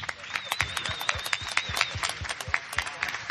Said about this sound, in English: a massive torrent of applause from the press.